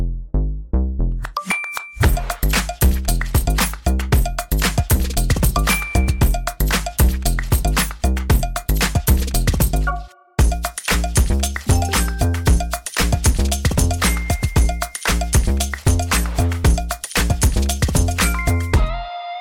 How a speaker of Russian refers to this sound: а сейчас заиграет тот самый джингл